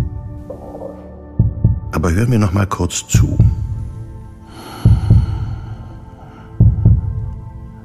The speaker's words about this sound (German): Das eigene Herz so deutlich zu hören, macht mir bewusst, was für ein Kraftwerk da unermüdlich arbeitet. Seit Anbeginn meiner Existenz.